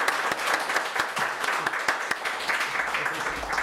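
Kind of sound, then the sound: crowd, audience applause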